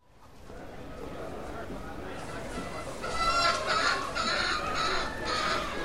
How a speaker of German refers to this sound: Da, da kommen sie, die Hühner.